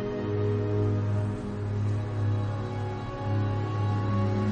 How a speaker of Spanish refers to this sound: En el glaciar, Henry conduce una moto de nieve.